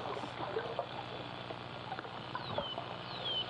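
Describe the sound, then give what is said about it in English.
Two thin, downward-sliding synthetic whistles, a sound for a rope toy played from a keyboard to request the toy from dolphins, sound underwater, faint and brief, one after the other near the end, over a steady wash of hiss and bubbling water noise. “And that's the rope whistle.”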